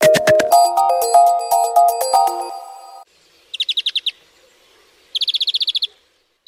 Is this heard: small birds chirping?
yes